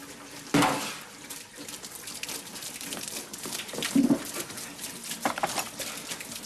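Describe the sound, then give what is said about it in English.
Water gushes steadily from a leaking pipe after a final turn during a do-it-yourself repair with the water left on, a continuous rushing spray with a few sharper splashes and knocks breaking through. No one speaks. “Quick! Where's that bucket? You should have turned the water off.”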